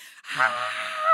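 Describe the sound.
A single voice lets out a sustained, strained scream-like cry lasting about a second, loud, with a brief breathy start and a rising, cracking pitch at the end, imitating screaming in a bathroom during a nervous breakdown.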